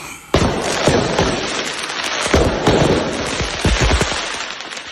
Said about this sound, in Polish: Policja wyjaśnia okoliczności naprawdę wystrzałowego finału Wielkiej Orkiestry Świątecznej Pomocy w Rumi w województwie pomorskim. W sali zostały odpalone fajerwerki, które delikatnie mówiąc wymknęły się nieco spod kontroli.